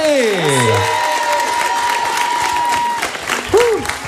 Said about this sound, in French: Faites un maximum d'applaudissements